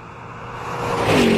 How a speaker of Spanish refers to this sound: Mira ese carro que viene ahí a lo lejos. Hijo, de...! mira nada más cómo viene el desgraciado.